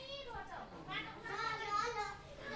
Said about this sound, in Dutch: Onze auto is zojuist gestopt voor een woning in een drukke buurt die op een heuvel is gebouwd. Spelende kinderen kijken ons nieuwsgierig aan